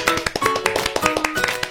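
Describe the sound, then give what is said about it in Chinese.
A short burst of applause: quick, uneven hand claps in a steady patter, moderately loud and sharp, with no one talking. “呼叫先辈， 鼓掌！”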